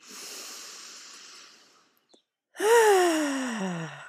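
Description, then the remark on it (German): A slow deep breath in, a brief pause, then a louder drawn-out exhale that turns into a voiced sigh falling in pitch. No talking. “Ja, zu Beginn der Folge atmen wir erstmal gemeinsam tief ein”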